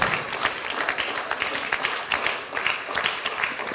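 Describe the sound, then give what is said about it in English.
Thin, scattered clapping from an audience at a religious gathering as a speaker is called up, a steady patter of hand claps that stays fairly soft and even throughout without building into a strong ovation. “Those who are clapping, it's very weak, very weak, very weak.”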